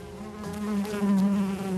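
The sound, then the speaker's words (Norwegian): A steady buzzing of bees, droning continuously with a slightly wavering pitch throughout the short stretch, no voices present. “De er bare insekter, men de er uerstattelige. Vi er helt avhengig av biene.”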